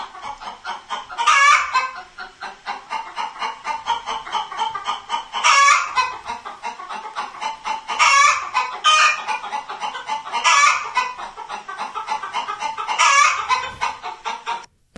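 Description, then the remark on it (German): A hen cackles loudly and insistently in the classic egg-laying call, rapid clucks building to sharp squawks that repeat about every two to three seconds, with no talking. No egg was actually laid. “Also das ist eigentlich der Ei, der wirklich spezielle Eiruf oder aber das ist auch der Ruf dafür, wenn irgendwas anderes Spektakuläres ist.”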